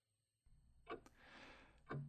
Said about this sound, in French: Fait que c'est comme ça que cette horloge-là n'a jamais pu faire la 20 en sens inverse, puis qu'elle est restée ici, avec moi, à Québec. Aujourd'hui, je regrette que mon père ait pas pu s'endormir une dernière fois au son de l'horloge de son enfance.